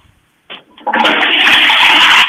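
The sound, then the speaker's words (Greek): A bidet flushes: a short click, then a loud, steady rush of water that keeps pouring strongly to the end, with no talking. “τι έκανε, μπιντέ.”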